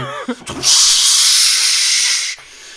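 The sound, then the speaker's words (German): A voice imitates the loud, sustained hiss of air being pumped down or up on a fast, loud tower ride, a bright, steady rush lasting nearly two seconds before cutting off abruptly, preceded by a brief vocal lead-in. “wenn die, wenn die Luft da runtergepumpt wurde oder hochgepumpt, wie so.”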